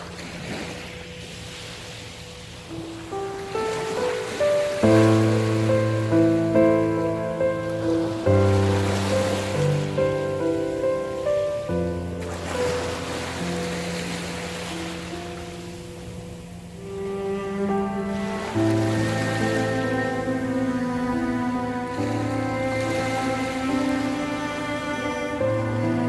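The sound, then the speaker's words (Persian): Sea waves wash onto the shore with broad hissing surges every few seconds, rising and falling, under a steady melodic music bed of sustained chords that shift gradually. No one speaks. “غیر ارادی شروع کرد کنار دریا فریاد کشیدن و گریه کردن”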